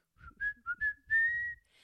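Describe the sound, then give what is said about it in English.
Someone whistles through pursed lips: four short, clear notes in quick succession, then one longer held note that glides slightly upward, fairly quiet, with no talking. “That's like if you're going to whistle,”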